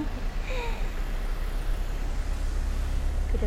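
A steady low rumble of many cars passing along a street in Kamakura, Japan, continuous, with no single vehicle standing out from the flow of traffic.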